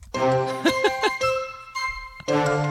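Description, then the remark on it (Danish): A short bright musical jingle with chime-like tones and a few rhythmic plucked accents, ending on a sustained ringing note before the melody briefly returns, played alone without talk. “ja, vi tager din jingle.”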